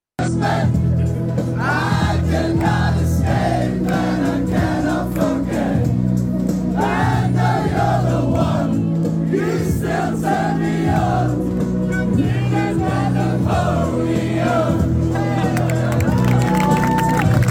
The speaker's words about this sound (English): And uh, there was a video of the Lando's paddock singing a song to him. Uh, we'll put the actual video in, but here's the.